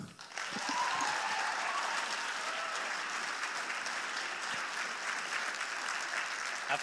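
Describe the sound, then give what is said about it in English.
A crowd claps steadily for several seconds for the first speaker, radio personality Kid Carson, a dense, even wash of hand claps that stays loud throughout with no voices standing out. “So please give a round of applause for the first speaker, Kid Carson.”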